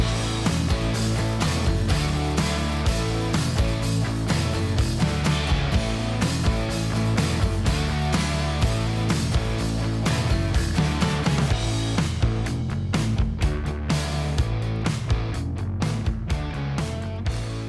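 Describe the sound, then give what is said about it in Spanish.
An upbeat intro jingle plays on its own, full and steady in volume, driven by a regular beat with crisp percussive hits and sustained bass for about eighteen seconds, with no voices. “Venga, tira la cabecera y preséntanos a quién tenemos hoy.”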